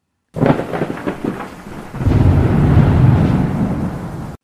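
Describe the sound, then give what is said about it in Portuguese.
A loud thunderstorm: a rumbling thunderclap rolls through at first, then heavy, steady rain roars in continuous with low thunder beneath it. “Após enfrentar uma forte tempestade e nem chegar perto do bafo do dragão, ele voltou para casa e desistiu de cumprir a missão.”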